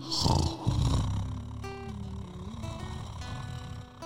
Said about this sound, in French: Puis ils se mettent à renifler et à grommeler.